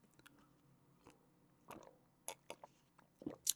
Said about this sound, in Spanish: Pero esperen, déjenme doy un trago de, de mi agua con ASMR.